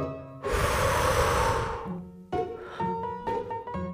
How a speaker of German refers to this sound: Wenn wir atmen, atmen wir Sauerstoff ein und Kohlenstoffdioxid aus. Lass das mal zusammen machen. Richtig tief. Einatmen. Ausatmen.